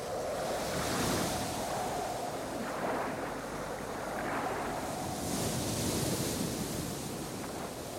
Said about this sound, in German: Wenn auf einem 140 Meter langen Kriegsschiff sechs Meter hohe Wellen schon für Unruhe sorgen, wie ist es dann auf einem 25 Meter langen Segelschiff vor Kap Horn und für einen bayerischen Magen?